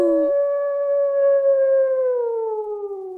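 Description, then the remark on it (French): A single long, drawn-out howl, voiced by a person imitating a werewolf howling at the moon: it rises quickly, holds a steady tone, then slowly sinks in pitch over about three seconds, loud. “Son torse grandit et elle se met à hurler à la lune.”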